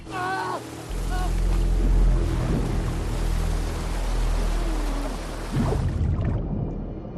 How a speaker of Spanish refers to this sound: Resbalón, quedas colgado de las rocas del acantilado. Arriba el suelo, abajo las fuertes olas rompiendo entre las rocas.